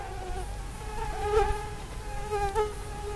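Several mosquitoes whine around a tent at night, their thin high-pitched buzzing rising and falling as they drift past, over a low rumbling background with no voices.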